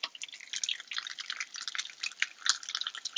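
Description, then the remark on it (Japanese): Chicken karaage deep-frying in hot oil, a steady dense crackle of rapid bright pops and hisses throughout, with one sharper snap near the end and no voices. “唐揚げあげてます。”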